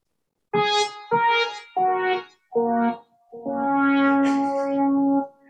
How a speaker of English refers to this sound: Well, I, have actually I, I, got the old uh, harp sound up on my keyboard for this because I thought, you know, all I have to do is play five notes, and and and here we go.